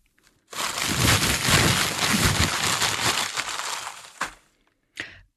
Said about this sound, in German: Das war eine Plastiktüte gefüllt mit Glückskeksen, zehn an der Zahl.